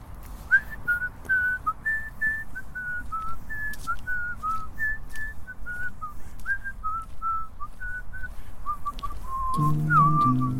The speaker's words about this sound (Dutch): Ja, een van de vele, want ik hou van Braziliaanse muziek. Maar ik hou ook van andere muziek. Hm, wilt u nog eens zo fluiten? Dan loop ik even eindje met u mee. Iets anders fluiten? Ja, hetzelfde liedje wat u net floot.